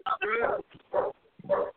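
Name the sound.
dog barking angrily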